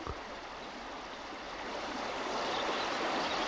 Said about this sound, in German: Nun, es war Abend geworden. Unten am Fluss stiegen gerade zwei kleine Jungen in ein goldschimmerndes Boot, das sie auf den dunklen Fluten hinwegtrug.